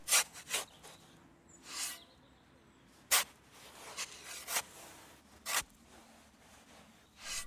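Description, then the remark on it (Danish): Dry scraping and gritty rasping come in irregular bursts as archaeologists carefully dig into soil and scrape away sand during an excavation, with short pauses between strokes and no voices. “Det er lyden af jord, der bliver gravet i, og sand, der bliver skrabet væk.”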